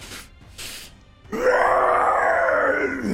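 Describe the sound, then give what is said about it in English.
A person voices a monstrous roar imitating a big beast roaring: two short breathy huffs, then a loud, sustained, guttural bellow lasting nearly two seconds, strained. “just roars at you.”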